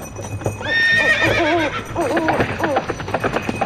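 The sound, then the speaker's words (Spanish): Horses whinny loudly in long, wavering high-pitched calls, one after another, while hooves clip-clop in a quick, uneven rhythm underneath, with a busy rumble of movement throughout, as a cavalry arrives. “Caballería. Qué bien, vienen todos.”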